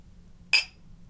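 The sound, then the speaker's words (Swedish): A single bright clink of glasses touching in a toast, a sharp ringing strike that decays quickly over a low, quiet background hum. “Ja, du, ska vi skåla på det?”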